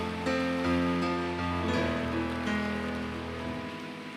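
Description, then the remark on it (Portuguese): A crowd claps steadily for about four seconds, a dense, even wash of applause, with sustained keyboard or organ chords ringing underneath. “Ah, pode aplaudir.”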